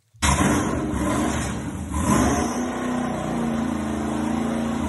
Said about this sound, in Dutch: lekker hè. Heerlijk. Geweldig, hij brult echt. Een dikke V8, 6,2 liter. Hoeveel pk heeft hij? Eh, we zitten rond de 430 pk.